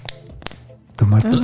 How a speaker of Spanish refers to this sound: Voy a abrir esta botella.